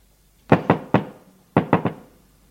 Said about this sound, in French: L'on frappe à la porte.